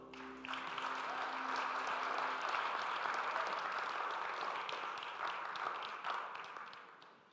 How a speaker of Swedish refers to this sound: Kan vi ge dem en, en, en stor applåd?